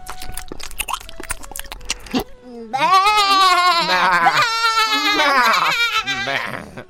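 A herd of goats bleats loudly and excitedly after nibbling cherry-like fruits from some plants, several quavering cries overlapping in a dense, continuous chorus after a brief burst of rustling, clattering noise at the start.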